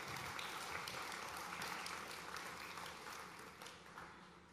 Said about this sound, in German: Vielen Dank. Ja, Applaus für euch.